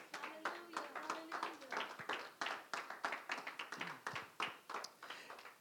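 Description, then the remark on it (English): An audience gives God a round of applause, many hands clapping in a dense, steady patter that holds at a fairly even loudness for several seconds, with a few voices calling out beneath it. “How many of you can give God a round of applause right now?”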